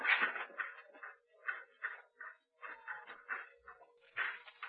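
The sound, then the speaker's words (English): Dancing dolls tapping and bouncing in a back room of a shop: a quick, uneven run of light clattering taps, about a dozen bursts in a loose rhythm, fairly quiet, with no voices. “It is the dance of the devil dance.”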